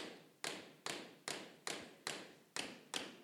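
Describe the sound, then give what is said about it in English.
A tap shoe strikes a hard floor in a steady series of about eight crisp flams, each a quick doubled tap, evenly spaced, with no talking. “It's called a flam. It's two sounds at once. It looks like it's one, but it's really two.”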